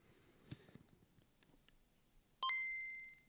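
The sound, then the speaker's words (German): A few soft handling clicks, then a Game Boy handheld console startup chime rings out, a bright electronic two-note ding that sustains clearly and slowly fades, fairly loud. “nee, das ist tatsächlich noch der Gameboy.”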